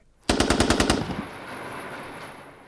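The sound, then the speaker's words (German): Seven loud gunshots fire in rapid succession inside a room, almost like a short automatic burst, the shots striking the ceiling; then a roomy echo lingers and slowly fades. No one speaks. “Insgesamt fielen sieben Schüsse, Tote keine, Verletzte die Decke.”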